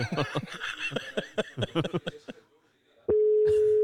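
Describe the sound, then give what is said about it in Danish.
Chuckling and laughter give way to a brief pause, then a loud, steady telephone ringing tone begins and holds to the end, as two radio hosts place an outgoing call to a listener. “Nu ringer vi til Emilie.”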